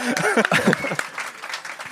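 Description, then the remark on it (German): A short burst of audience applause, a steady patter of claps that carries through the whole two seconds, with a voice talking over it during the first half. “Äh, Applaus für das.”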